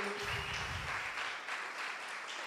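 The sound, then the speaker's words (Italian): A crowd applauds to welcome a man the speaker has called up, with dense, steady clapping that stays loud throughout and a brief low murmur of voices mixed in at the start. “accogliamolo con un applauso.”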